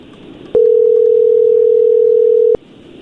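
telephone call dial tone

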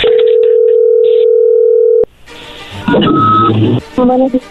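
telephone call ringing tone

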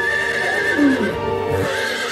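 horse neighing and hooves

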